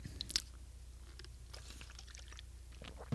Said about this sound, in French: Je me prends une petite gorgée d'eau.